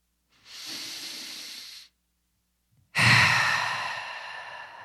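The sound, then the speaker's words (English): Two long deep breaths with no talking: a steady airy inhale lasting over a second, a brief pause, then a louder, forceful exhale that slowly trails off. “Let's take a few deep breaths.”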